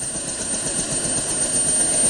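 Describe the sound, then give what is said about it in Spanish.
A rescue aircraft flies over an island, a loud continuous roar with a rhythmic low thumping underneath that holds constant throughout. No one speaks. “los rescatadores sobrevolaron la isla. De pronto, el piloto divisó a un grupo de personas en lo alto de una montaña.”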